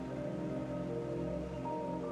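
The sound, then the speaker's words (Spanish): A steady, continuous rush of river water flowing calmly yet strongly, fairly loud, with no break in its texture and no voices. “Disfrutan el sonido del agua”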